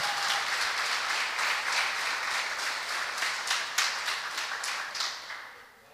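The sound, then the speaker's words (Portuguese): A crowd applauds Jesus steadily, many hands clapping in a dense, bright wash with a few sharper individual claps standing out near the end before the applause fades away. “Então aplauda Jesus mais uma vez por essa obra maravilhosa que ele fez.”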